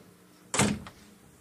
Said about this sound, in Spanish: Cierra la puerta y entra.